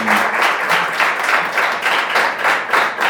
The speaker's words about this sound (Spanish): eh, estoy grabando en Ecleto Bar, un jueves 27 de octubre a la 1 y... 6 de la tarde, 1 y 10 de la tarde, 1 y 8. Y hay unas cuantas, 15, 20 personas acá que vinieron específicamente para esto. Aplaudan por favor, así escuchan de fondo.